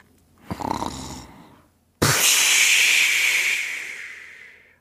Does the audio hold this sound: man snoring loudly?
yes